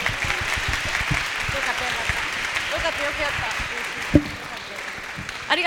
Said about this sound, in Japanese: お話を終わりたいと思います大きな拍手を